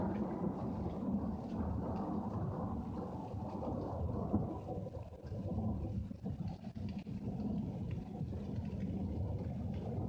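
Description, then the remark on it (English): A deep, continuous rumble of thunder rolls on for several seconds over the steady hiss of a rainstorm, heavy in the low end and fairly loud, with no voices. “I don't know if you can hear the rain in the background, but it's there. You hear thunder?”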